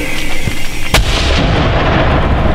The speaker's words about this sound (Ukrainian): Міномети розрахунок готовий. По цілі переправа по готовності вогонь. Постріл. Міномет. Постріл.